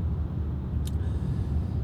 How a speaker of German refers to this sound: Ja, Another Drivecast, ein weiterer Podcast aus dem Auto.